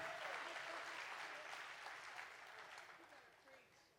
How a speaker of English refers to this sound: Ah, you better clap right now because I'm going to come after you.